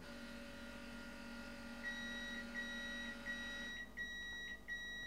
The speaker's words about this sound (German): Also bitte am Piepen nicht irritieren lassen.